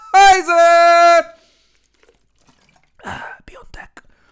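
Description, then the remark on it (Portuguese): A loud, sustained voiced tone is followed by a short pause, then wet sips and small swallowing clicks as someone drinks water. “É verdade, deixa-me beber água.”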